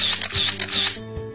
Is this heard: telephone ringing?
no